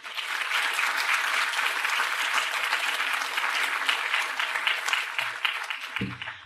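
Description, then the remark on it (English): Steady applause from a sizable crowd at an event, thanking a speaker for his hard work and welcoming him to the stage: a dense wash of clapping that holds for several seconds before a brief low thump near the end as it starts to fade. “thank him for his hard work, and welcome him to the stage to introduce the last conversation in the series.”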